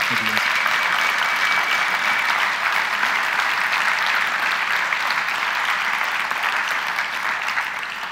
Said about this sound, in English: Just so we're clear, the clapping is appreciation, not adulation, all right?